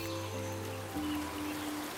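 A steady, soft rush of water flowing in a distant forest stream runs continuously with no pauses, over a low sustained humming drone.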